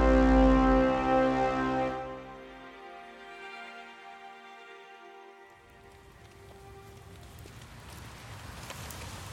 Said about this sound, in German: Ende 1956 in Frankfurt am Main. Der Regen prasselt auf den Schirm von Soichiro Honda.